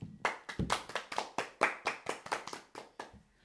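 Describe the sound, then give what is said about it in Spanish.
Applause in honour of Benito Juárez: about a dozen sharp, bright hand claps in a steady, even rhythm, fading slightly at the end, with no voices over them. “Así que aplausos para Benito Juárez, la verdad.”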